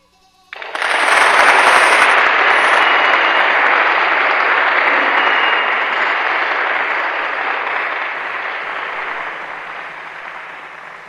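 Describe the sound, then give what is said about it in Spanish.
An audience bursts into sustained applause after a poetry reading on a radio show, a dense, crackling wash of many hands clapping that starts abruptly, stays loud, and slowly eases off over about ten seconds. “Aplausos, por favor.”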